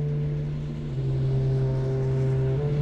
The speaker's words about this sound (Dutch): Het is stil in de zevende wijk. Over het 19e-eeuwse treinviaduct rijdt een eerste trein.